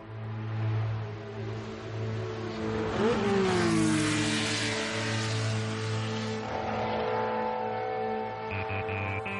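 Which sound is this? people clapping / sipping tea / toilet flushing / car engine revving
car engine revving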